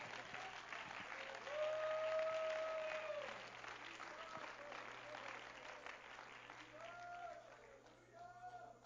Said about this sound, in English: Let's clap our hands to Him and give Him praise.